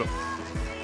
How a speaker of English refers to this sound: Is that a plane? I, oh, sh- it's a plane. Is that a plane? That's a plane.